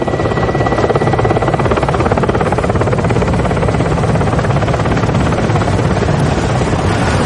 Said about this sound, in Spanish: baja del helicóptero.